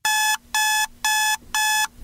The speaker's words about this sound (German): Oder eben auch sowas wie Weckerklingeln. Diese Geräusche sind ja eigentlich so designt, dass man sie gar nicht ignorieren kann.